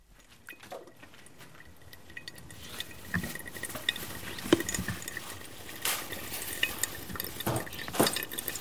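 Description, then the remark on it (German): Water is poured slowly in small circles onto coffee grounds, a soft, steady pouring hiss with faint crackles and small splashes that build slightly over several seconds, quiet with no talking. “Dann gießt sie in kleinen Kreisen langsam das Wasser dazu.”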